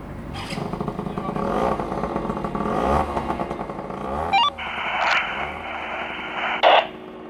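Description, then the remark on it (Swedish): A motorbike engine runs and revs in uneven surges at a spontaneous motor meet in a parking lot, with a sharp rising whine around the middle and a harsh buzzy tone afterward, clattering and fairly loud throughout. “Det har eh, även blivit någon slags spontan motorträff på parkeringen.”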